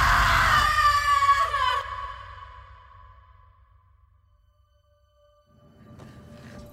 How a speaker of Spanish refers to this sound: Sus gritos de dolor son desgarradores y hacen eco de un lado a otro en tu cabeza.